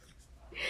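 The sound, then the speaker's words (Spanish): A quick sharp intake of breath builds into a single loud sneeze that bursts out at the very end. “Salud.”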